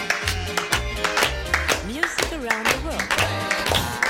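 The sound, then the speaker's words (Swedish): Steady, evenly spaced hand claps from radio hosts in a studio keep time over upbeat music, with a sliding, singing-like voice mixed in; the claps are sharp and fairly loud throughout. “Och så klappar vi med då!”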